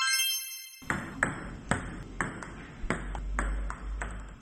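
A table tennis ball is hit back and forth in a quick, steady rally, about nine sharp, bright pocks spaced roughly half a second apart, with no voices.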